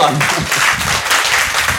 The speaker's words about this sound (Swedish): Så det är faktiskt dags att eh, ge åtminstone dig mm. en stor varm applåd.